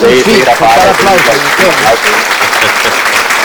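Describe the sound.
Steady audience applause fills the whole stretch, loud, with a person talking over the clapping for the first couple of seconds before it continues alone.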